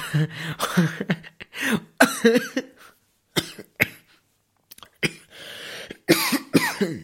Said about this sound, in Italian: Scusate, ma... ho un po' di tosse, che mi andava attraverso l'aria.